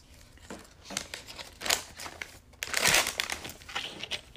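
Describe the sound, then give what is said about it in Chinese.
A small plastic ketchup packet is crinkled open in irregular bursts, building to a louder tearing crackle near the end, as ketchup is added for dipping fries. There is no talking. “弄点番茄酱，可以沾薯条、鸡块、热狗。”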